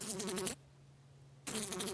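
A fly buzzes in two bursts with a short pause between, a steady droning hum with a rough, raspy edge. No one speaks.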